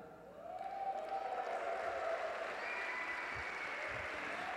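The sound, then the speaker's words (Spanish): An audience breaks into applause while some of the men do not clap, a dense, steady wash of clapping that swells in after a brief quiet start and holds at full strength, with a thin sustained tone running faintly underneath. “Y los hombres no aplauden.”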